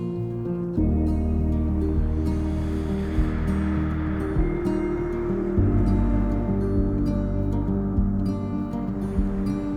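Ocean waves surge in a continuous, fairly loud wash, with steady sustained tones layered underneath and no one speaking.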